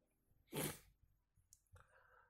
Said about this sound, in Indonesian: kalau misalnya teman-teman ada suara dot dot dot dot dot itu ya itu SMS masuk gitu SMS masuk chat chat masuk chat masuk karena saya juga orang sibuk